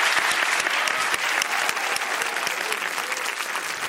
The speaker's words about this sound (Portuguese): Por favor, aplaudam